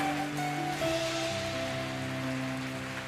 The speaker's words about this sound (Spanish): Dele fuerte, fuerte ese aplauso. Fuerte ese aplauso al Rey de Reyes. Fuerte ese aplauso al Señor de Señores.